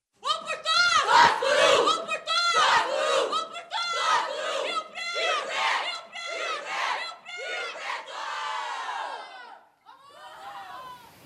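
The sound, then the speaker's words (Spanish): At a football game, a large crowd of fans chants the team motto of Ferroviaria in unison, many voices shouting a short phrase in a steady, repeating rhythm, loud and full, before trailing off near the end. “En el cuarto de Laura sonaba así, pero en el juego de verdad suena más o menos de esta manera.”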